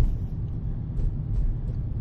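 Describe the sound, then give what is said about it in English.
A steady, low rumble of road traffic in LA at 10:45 at night fills the whole stretch, continuous and fairly loud, with faint higher hiss drifting in and out and no voices. “It is 10:45 at night, and there's traffic everywhere.”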